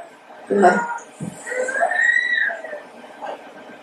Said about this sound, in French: J'aime bien qu'il crie.